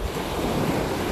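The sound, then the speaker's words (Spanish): Gentle waves of a calm sea wash steadily onto the beach at Playa Blanca in the afternoon as someone walks along it, a continuous soft roar of surf with some wind buffeting the microphone and no voices. “Aquí en Playa Blanca, si escuchan de fondo, ando caminando por la playa.”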